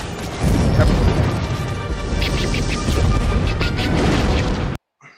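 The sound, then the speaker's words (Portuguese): A dense, continuous battle din of Star Wars laser blaster shots and heavy booms, loud, with short bright bursts popping out repeatedly and voices faintly mixed in, ending abruptly. “Esse som também é característico dos tiros de laser.”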